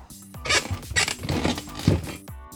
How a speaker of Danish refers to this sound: Det skal faktisk handle om det, der laver lyden. Og nej, det er ikke min knæ eller min gamle ryg. Det er vores stol her i studiet, der er meget snaksalig. Den er begyndt at knirke så meget på det sidste, og det kommer med i radioen.